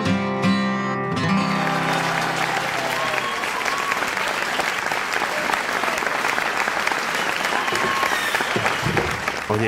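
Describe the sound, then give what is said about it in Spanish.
An audience claps steadily for about ten seconds, a dense, even wash of applause that swells in right after a sustained musical chord fades out at the start. “Aplaudir, aplaudir.”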